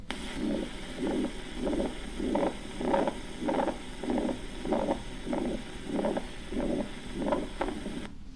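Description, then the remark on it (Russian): A heart murmur from a ventricular septal defect: low, rumbling whooshes repeating steadily about twelve times, each swelling and fading with the heartbeat over a faint constant hiss. No one speaks. “Пожалуйста, снова шум при дефекции межжелудочковой перегородки.”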